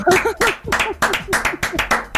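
A short burst of steady hand clapping from a few people, sharp regular claps about three per second, with some laughter or vocalizing mixed in.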